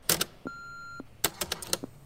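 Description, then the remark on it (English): A single steady answering machine beep lasting about half a second, clear and fairly loud, framed by sharp clicks and clattering handling noises just before and after it. “Here comes the beep.”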